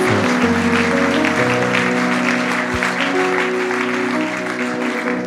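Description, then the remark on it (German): An audience claps steadily throughout for people who have made the right decision, a dense, sustained wash of applause from many hands, with held keyboard chords playing softly underneath. “Lass uns einen Applaus geben, denn Menschen haben die richtige Entscheidung”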